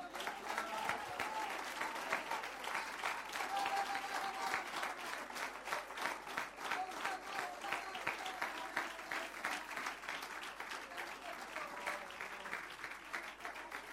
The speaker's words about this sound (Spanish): Démosle, hermano, un fuerte aplauso de alabanza al Señor.